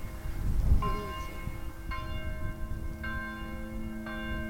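Outdoor ambience at Moskova cemetery in Arnhem: a church bell tolls four slow, evenly spaced strikes, each ringing on, over a low rumble of wind and background noise. No one speaks.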